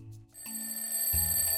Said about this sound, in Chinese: 这是一个非常寒冷的早晨，灰兔王子被自己的闹钟吵醒，但是他还是躲在棉被里面不肯出来。